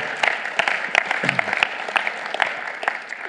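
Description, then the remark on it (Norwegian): An audience claps steadily, a dense wash of many hands patting at once with no voices over it, holding an even, moderately loud level throughout. “Dere kan få lov til å klappe én gang til, for det også er utrolig bra å være med på.”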